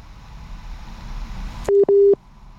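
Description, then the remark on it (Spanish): A crackly, hissing phone line cuts out as the call drops, into two loud, steady beeps of a busy tone in quick succession, followed by near silence. “Sí, te perdimos un momento, sí, pero cuéntanos.”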